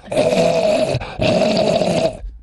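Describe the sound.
A voice imitates zombie growls in two sustained, raspy bursts with a brief break between them, loud on the mic.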